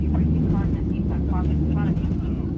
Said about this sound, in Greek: Φωτιά ξεσπάει στον κινητήρα αεροπλάνου της American Airlines που μόλις έχει απογειωθεί από το Γάιο. Σύμφωνα με το πιο πιθανό σενάριο, ένα πτηνό μπήκε στην τουρμπίνα λίγο μετά την απογείωση με αποτέλεσμα να προκληθεί φωτιά.